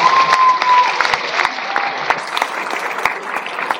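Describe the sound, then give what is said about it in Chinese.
Sustained audience applause for a boy being invited onto a stage, a dense wash of many hands clapping steadily at a fairly loud, even level for the full few seconds, with no talking over it. “来，给给点掌声给我儿子，给他一登台机会。”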